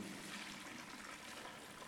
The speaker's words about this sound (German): Ich habe keine Amphore, aber einen Eimer und hier eine Gießkanne mit warmem Wasser und diese wird nun, äh, also machen wir es, so, dann kann man es auch schön sehen,